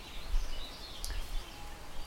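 Faint birdsong drifts over a low, steady outdoor hiss, with one brief, sharper chirp standing out near the middle. No one speaks.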